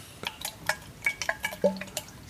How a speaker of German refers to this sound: Und weißt du was, weil die Sonne so schön scheint, legen wir uns einfach noch ein bisschen auf, dies, auf den warmen Anleger, auf diese ah. schönen, schönen Bretter. Ja, noch ein bisschen ah. die Wellen plätschern